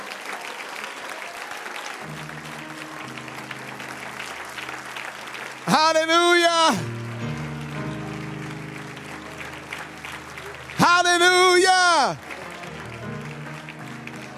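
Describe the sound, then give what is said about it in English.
An audience claps hands in worship, a steady wash of applause from many people throughout, with a low organ or keyboard sustaining underneath and a voice twice calling out loudly over it. “Somebody clap your hands and just worship for a minute.”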